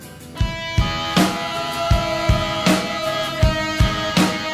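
A rock song plays on its own, with a steady drum beat of punchy kicks and crisp snare hits under sustained, ringing guitar chords, fairly loud, with no talking.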